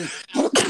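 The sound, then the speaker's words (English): A loud sneeze, a short breathy intake followed by two forceful bursts in quick succession, with no talking around it. “Bless you.”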